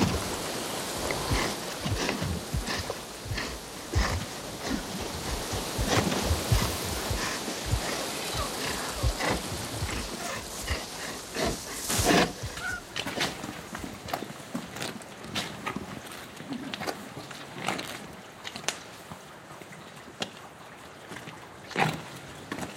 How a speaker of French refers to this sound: Voilà les petites rues de l'ancien village avec la neige qui tombe des toits.